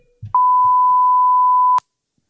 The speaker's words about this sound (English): Just can't say bad words. Beep.